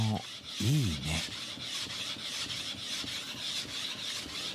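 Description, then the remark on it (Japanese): Steady rasping of a file working wood, in continuous rhythmic strokes, as a craftsman makes a shamisen; a brief wavering, pitched squeak rises and falls near the start. “今朝は職人技が光る三味線作りのいい音”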